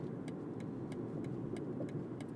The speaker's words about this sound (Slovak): sedíme v BMW, tak musíme toto... Lebo toto auto je dobré, podvozkové je super, jazdí sa s ním výborne.